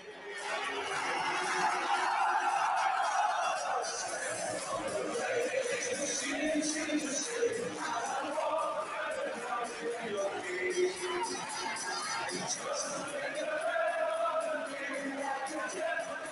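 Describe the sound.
A large stadium crowd sings a club anthem together, a dense, steady roar of massed voices carrying a melody, loud and continuous throughout with scattered shouts rising above it.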